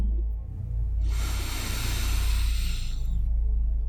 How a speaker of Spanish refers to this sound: Mantén el aire en los pulmones durante 3 segundos y luego soltalo lentamente por la boca o por la nariz, lo que te sea más cómodo. Y nota cómo tu atención se va en esa respiración lenta y pausada. Respira profundo.